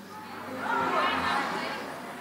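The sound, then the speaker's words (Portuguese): A crowd of voices shouting their own names loudly all at once on a count of three, a dense overlapping roar of different words that swells to a peak around a second in and then slowly tapers off. “Eu vou contar até três e você vai gritar o seu nome aí bem alto.”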